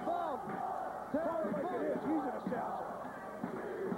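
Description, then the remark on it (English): A large wrestling crowd chants "we want blood" loudly and continuously during a Terry Funk and Sabu match, many voices overlapping in a rhythmic, rising-and-falling chant that fills the whole stretch. “That's saying we want blood.”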